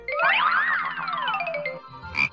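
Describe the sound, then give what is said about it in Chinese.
A playful frog croaking sound, sliding up and then down in pitch over about two seconds, with a short sharper burst near the end. No one speaks. “是啊，所以你还有任务，接下来是小青蛙呱呱提问题的时间，请小朋友们做好准备。”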